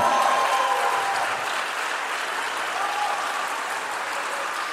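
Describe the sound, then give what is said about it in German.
Steady applause from a live audience, a dense wash of many hands clapping at once, fairly loud and sustained for the whole stretch without any talking over it. “Jetzt euer Applaus für Flo und den engen Kanadier.”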